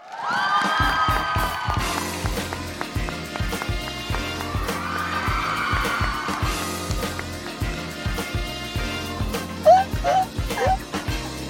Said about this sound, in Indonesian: Jadi without further ado, mari kita berikan tepuk tangan yang sangat luar biasa kencang untuk Reza Rahardian.